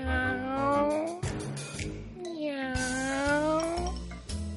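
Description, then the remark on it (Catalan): A voice imitates a cat with two drawn-out, thin, high meows, one after the other, fairly loud, with faint background music underneath. “Amb tu sí que em vull casar, gatet del dolç miolar.”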